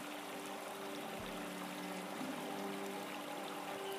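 A babbling brook flows steadily and softly throughout, a continuous, even wash of trickling water with no voices and no change in level.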